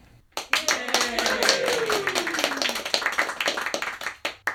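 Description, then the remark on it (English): An audience breaks into applause, a dense, steady patter of many hands clapping for about four seconds, with a voice cheering in a falling pitch near the start before the clapping thins out. “Let's offer up a round of applause for those who voted against this little bit of insanity, shall we?”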